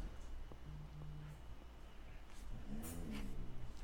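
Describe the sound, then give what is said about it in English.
A dog lets out a low, drawn-out moan that rises and falls in pitch, fairly faint against a steady background hum, preceded by a softer brief whine. “My dog just moaned.”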